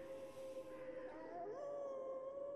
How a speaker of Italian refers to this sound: Da qualche parte in alto, probabilmente dalla torre, ho sentito la voce del conte lanciare un richiamo con quel suo bisbiglio aspro e metallico. A quella chiamata sembrava rispondere da ogni dove l'ululato dei lupi.